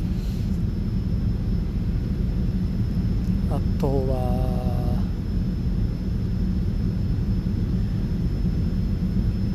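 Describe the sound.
A steady, loud airplane cabin drone from the engines fills the whole recording without a break during a long flight to Dubai, and a voice briefly speaks over it partway through.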